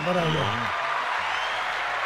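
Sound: applause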